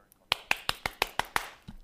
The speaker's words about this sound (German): Klatschen.